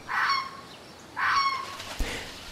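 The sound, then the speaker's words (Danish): Two loud, harsh honking calls from wild geese on the island of Livø, each lasting about half a second, clear, with a brief soft thump near the end and no voices. “du kunne plukke, hvis du skulle have alle blomster med i samme buket til mors dag. Og sidst, men ikke mindst, så kan du på Livø også opleve masser af fantastiske dyr. Har et rigt fugleliv.”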